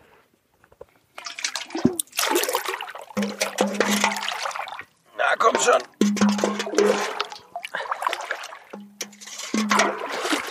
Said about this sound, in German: So, 10 Meter weit unten am See. Mega schön, mega klar. Es hat alles hier Trinkwasserqualität. Jeglicher Bach, jeglicher Fluss. Und dann muss ich hier den Edelstahl einmal holen, 10 Liter Wasser ran.